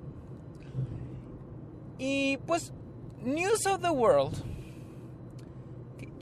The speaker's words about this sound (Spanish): Así que vengo manejando, no traigo el celular ni nada, o sea, no, no, no, no, no, yo con precaución, como si estuviera en una llamada. Así que por si escuchan el carro, pues es porque vengo grabando mientras manejo.